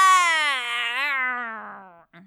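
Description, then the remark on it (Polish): A voice does a playful imitation of a lion's roar: one loud, drawn-out, tonal wail that slowly sinks in pitch, fading a little before a brief short sound at the end. “Ryk zwieńczył się pozą taneczną, której się ostatnio uczył i głośnym tadam!”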